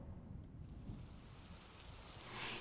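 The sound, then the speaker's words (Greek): A steady downpour of heavy rain, a dense continuous hiss with a low rumbling undertone, swelling slightly louder toward the end. No voices. “Μόλις που προλαβαίνουν να χωθούν στην κουφάλα ενός πεύκου, όταν ξεσπάει η μπόρα.”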